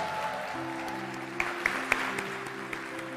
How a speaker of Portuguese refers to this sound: o pastor Rob, que deve estar nos ouvindo, um abração para ele, um beijão, está tirando férias e me, férias merecidíssimas. Vamos aplaudir as férias do pastor Robson.